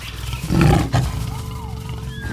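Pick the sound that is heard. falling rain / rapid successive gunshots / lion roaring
lion roaring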